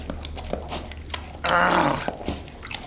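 A dog in a kitchen chews and gnaws on a turkey stolen off the counter, with irregular crunching bites and a brief, louder rumbling growl in the middle. No one speaks.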